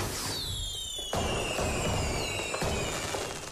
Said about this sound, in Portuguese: E na RFM está na altura de soltarmos o fogo de artifício.